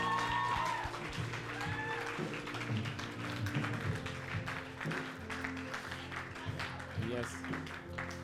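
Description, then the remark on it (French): An audience applauds the Lord steadily for several seconds, a dense wash of clapping over sustained low musical tones, with some voices mixed in. “Est-ce qu'on peut applaudir encore le Seigneur”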